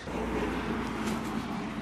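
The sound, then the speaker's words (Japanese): A quiet, cool-shaped passenger car glides past right beside a person riding a rental bicycle, in an area serving as a test site for various vehicle types, its soft, steady rumble and road hiss holding an even level throughout, with no voices. “えー、そうやって自転車で走っているうちに、私の脇にですね、静かに大根早く走れの乗用車タイプの車が走っていきました。”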